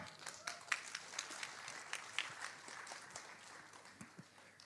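An audience applauds as a speaker is invited onto the stage, with a steady wash of many hands clapping and a few sharper individual claps standing out. The applause is fairly soft and lasts throughout, with no talking over it.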